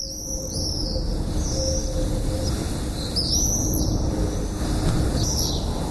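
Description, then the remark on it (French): Shrill, high-pitched screaming calls of common swifts come in several brief bursts, rising over a constant rumble of wind noise that fills the background throughout. “Et puis il y a un cri quand même, un chant particulier qui n'a rien à voir avec celui de l'hirondelle.”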